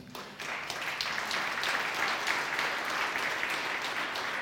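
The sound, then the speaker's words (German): A church audience breaks into sustained applause for its morning worship team, a dense, steady wash of many hands clapping at a fairly loud, even level for several seconds with no voices on top. “Ich denke, das ist ein Beifall wert.”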